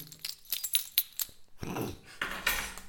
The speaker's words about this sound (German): Ich mache mir gerade ein Bier auf mit Jakobs Schlüssel